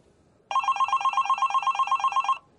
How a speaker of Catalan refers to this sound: De sobte, el mòbil del Jan sona. Oh, oh, és ella!